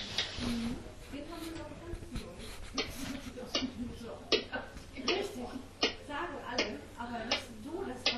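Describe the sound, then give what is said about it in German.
A person imitates a baby whale call with wavering, moaning vocal tones broken by sharp clicky bursts in an uneven rhythm, continuing for several seconds without any normal speech. “Mach mir den Wahlbaby.”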